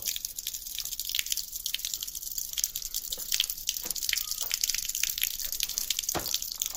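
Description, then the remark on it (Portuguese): Water flows steadily beneath the winery at Quinta da Voz de Oroce, between the Bairrada and Dão regions, with a continuous bright rush, dotted with small drips and splashes, moderately loud, with no voices. “Tem a água a passar, passa por baixo da casa, da, da, adega.”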